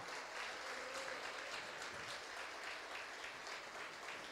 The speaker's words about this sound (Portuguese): Você pode aplaudir a Ele mais forte?